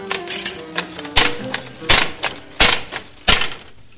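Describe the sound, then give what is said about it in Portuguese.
A hand loom weaving wool blankets in the ancient Berber tradition of Mértola, its beater striking in a steady rhythm of sharp wooden clacks about every second, with softer creaks and rattles between the beats. “Este som vem de longe da tecelagem de mantas de lá das antigas tradições berberes na Mértula muçulmana.”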